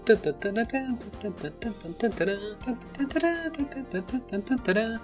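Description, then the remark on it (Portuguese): A man sings a bouncy, upbeat retro arcade racing video game theme by voice alone, fairly loud, the melody rising and falling in quick rhythmic phrases. “Bom, enfim, é, vocês vão então, baixar o episódio pra escutar eu cantando, né?”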